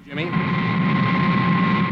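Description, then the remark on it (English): A loud, sustained explosive roar like a sonic boom as a diving craft breaks through the sound barrier, rising quickly and then rumbling steadily for about two seconds, with a faint whining tone running through it. “Like an explosion. That'll be supercar breaking through the sound barrier.”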